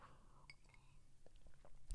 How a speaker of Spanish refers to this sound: Otra, otro traguito de agua.